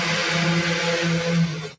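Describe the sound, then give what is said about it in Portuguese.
A Spanish motorcycle passing by while doing a wheelie, its engine roaring loudly in a harsh buzzing drone holding a fairly steady pitch for nearly two seconds before cutting off abruptly. No one speaks. “Uma, pa, pa, desculpa, a gente passou uma moto espanhola dando grau aqui.”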